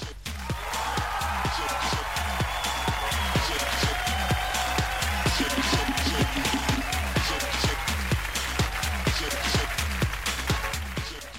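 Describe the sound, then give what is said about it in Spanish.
An applause sound effect played on Portal de 90 Radio: a crowd claps steadily and rhythmically for about eleven seconds, loud, with cheering voices carried underneath the dense, even beat of the hands. “Un gran aplauso para todos ustedes.”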